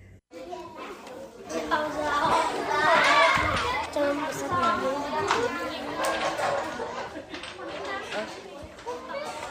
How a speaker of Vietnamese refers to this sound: Những ngày cuối tuần, Thư viện sách Dương Liễu ở xã Dương Liễu, huyện Hoài Đức, Hà Nội lại rộn ràng tiếng cười đùa vui vẻ của những đứa trẻ làng quê lùi tới đây đọc và mượn sách.